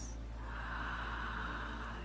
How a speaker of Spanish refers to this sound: Entonces, Vamos a respirar ese líquido sagrado.